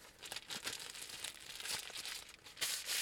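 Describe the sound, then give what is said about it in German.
Continuous crinkly rustling of plastic hand-mask gloves worn on the hands as the hands shift, with soft irregular bursts of crackling and no voices. “Ich darf jetzt meine Hände gar nicht bewegen, weil es sonst raschelt.”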